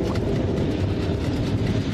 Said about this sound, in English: It's right above the subway!